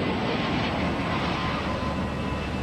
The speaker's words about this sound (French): Dimanche 26 juin 1988. À Mulhouse, près de la frontière entre la France, la Suisse et l'Allemagne, se tient le meeting aérien d'Abstheim. Les milliers de spectateurs lèvent les yeux alors qu'un A320 d'Air France entame sa descente.